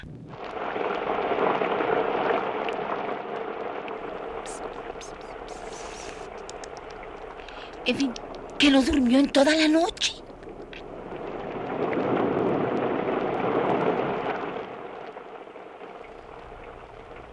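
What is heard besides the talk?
rain falling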